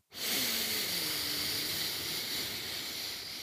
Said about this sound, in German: wir atmen jetzt einfach mal ganz bewusst tief durch die Nase ein. Ziehen in die Brust und in den Bauch und lassen dann mal die Luft ganz locker und entspannt aus dem Mund rausfließen.